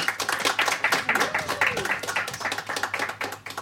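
An audience claps steadily, a dense stream of overlapping handclaps with no break, fairly loud throughout, and a faint voice murmuring underneath.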